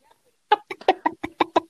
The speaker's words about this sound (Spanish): sus cinco gallinas ah. Las meto al patio y estudio su comportamiento.